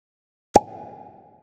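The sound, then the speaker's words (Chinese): A large turnip pops out of the ground with one sharp, loud plop, followed by a brief low rumbling tail that fades over about a second, with no voices. “大萝卜从土里飞了出来，大家都跌倒了。”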